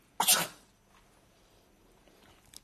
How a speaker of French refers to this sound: à tes souhaits, tonton.